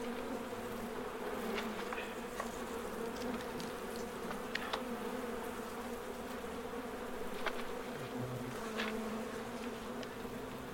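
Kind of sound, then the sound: insect, honeybee colony buzzing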